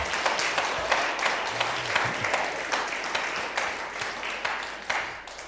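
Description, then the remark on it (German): Sustained applause for the worship band from the few people seated two meters apart at a church service, a dense crackle of many hands clapping steadily for several seconds at a moderate, even level with no voices over it. “Und damit die Menschen zu Hause sehen, dass ihr auch da seid, könnt ihr ja mal einmal einen kräftigen Applaus geben für die Lobpreisgruppe.”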